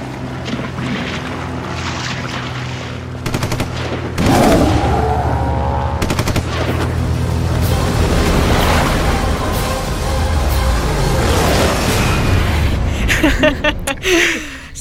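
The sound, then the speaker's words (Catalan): Applause in the studio for a guest back from the Sitges festival, a dense crackle of many hands clapping that swells loudly after a quieter start and continues steadily, with a low droning hum underneath and no one speaking. “tornem cap a Sitges, cap al festival per excel·lència i haureu sentit aplaudiments perquè tenim aquí l'estudi”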